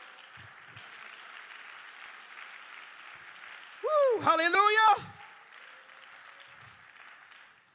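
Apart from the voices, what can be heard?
audience clapping hands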